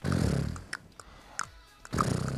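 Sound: person imitating a horse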